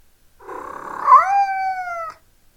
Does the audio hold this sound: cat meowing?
yes